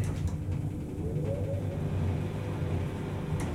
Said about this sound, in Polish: Włączę wentylator.